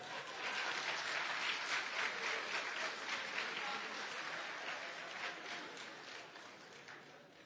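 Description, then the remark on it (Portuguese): A crowd applauds Jesus steadily, a dense wash of many hands clapping at once that holds strong for several seconds and then slowly tapers off. “Pode aplaudir Jesus.”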